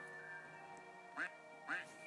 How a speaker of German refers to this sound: Der Jumpscare von dieser Ente, die ich hier gerade spiele, ist einfach so lächerlich. Hört mal.